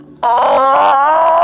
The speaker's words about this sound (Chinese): 就在此时，陈实。大吼一声